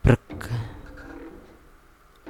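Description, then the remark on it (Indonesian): A voice imitates a heavy hopping landing with one loud, abrupt thud-like burst, trailing into a brief, low vocal murmur, then another short sharp sound at the end. “tiba-tiba gue denger dong suara itu lagi suara lompatannya itu lagi tepat di depan pintu ruang tamu gue”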